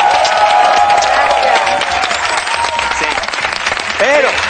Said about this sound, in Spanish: Un aplauso, por favor, para Mónica Cruz. Gracias, Mónica.